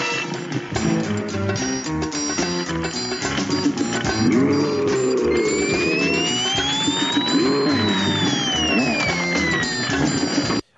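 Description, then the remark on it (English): A slide whistle sound effect from The Bionic Woman glides slowly up and then back down in pitch as Jaime Sommers jumps over Bigfoot, riding over a dense, steady bed of busy music and noise. “by the little slide whistle sound effect, you know that uh, Jaime Sommers jumped over Bigfoot”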